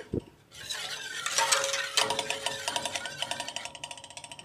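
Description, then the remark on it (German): Rhythmic scraping and clinking of a utensil stirring inside a pot on the stove as it is brought to a boil and starts to foam, with a steady bubbling hiss of something cooking underneath, repeating quickly in the second half. “Und jetzt steht das Ganze gerade auf dem Herd und ich rühre jetzt mal ein bisschen.”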